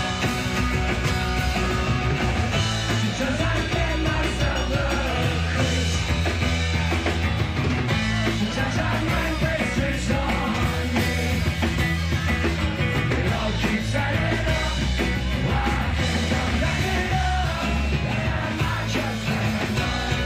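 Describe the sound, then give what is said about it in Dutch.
A raucous live band plays an hour-long warm-up gig in a pub in London, distorted guitars and drums pounding nonstop while yelling voices and crowd noise blur together into one loud, chaotic wall of sound. “En als opwarmertje daar weer voor zijn ze een pub ingedoken in Londen en hebben ze een uur lang gespeeld.”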